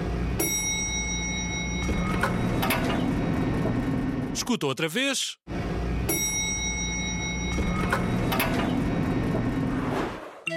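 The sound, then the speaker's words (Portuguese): An elevator door opens with a bell-like chime and a rolling slide, heard twice in succession, with a brief spoken voice and a whooshing sweep between the two plays. “E a resposta correta é a porta de um elevador que se abriu.”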